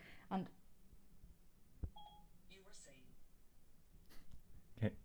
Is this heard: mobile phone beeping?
yes